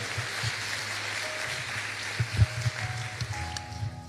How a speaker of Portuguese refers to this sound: Aplauda o Senhor Jesus. Aleluia.